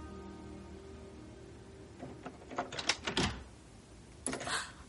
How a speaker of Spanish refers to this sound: La doncella abre la puerta.